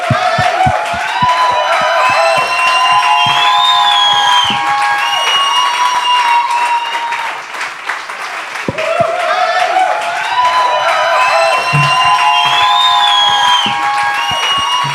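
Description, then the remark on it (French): A large audience applauds and cheers loudly and steadily to welcome guests Nico Day and Laurent Paquin, with whoops and shouts rising over dense clapping, briefly dipping midway before swelling again. “Euh, cette semaine, mes invités, j'aimerais ça qu'on leur donne une bonne main d'applaudissement.”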